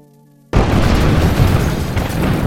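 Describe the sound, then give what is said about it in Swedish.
After a brief near-silent moment, a powerful bomb explosion erupts suddenly and loudly in London during the war summer of 1944, a new type of attack, followed by a sustained deep, roaring rumble that fills the remaining seconds without fading much. “en kraftig explosion.”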